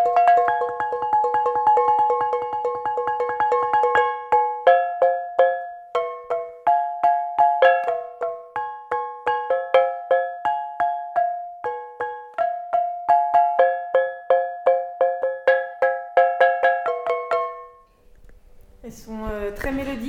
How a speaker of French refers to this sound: Donc, euh, je cherche les casseroles qui sonnent, qui sont assez solides et que je peux éventuellement réaccorder en les tapant au marteau. Mais toutes les casseroles ne font pas l'affaire